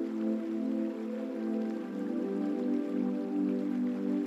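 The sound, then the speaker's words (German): Steady, continuous rushing and trickling of flowing water, like a river running over stones, holding an even level throughout with no voices present. “Traumreise an einen Fluss, an dem wir die Naturgeräusche des Flusses wahrnehmen und zur Ruhe kommen”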